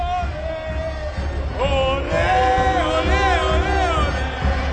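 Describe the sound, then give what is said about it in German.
A dense crowd of thousands of Borussia Dortmund football fans, arrived by train, fills Dortmund train station, many voices chanting and shouting together in a steady, loud roar that swells midway and stays continuous throughout. “Und natürlich kommen Tausende von Fans mit dem Zug nach Dortmund. Dann sieht man vor lauter Menschen den Bahnhof nicht mehr.”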